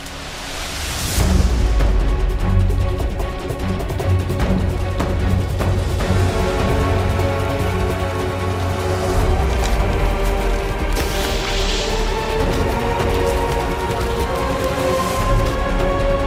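Dramatic orchestral nature documentary music, scoring a scene of an iguana fleeing a beach as snakes try to catch it, swells in after a quiet opening and plays loud and continuous, with sustained tense chords and sharp percussive hits driving it forward. No one speaks.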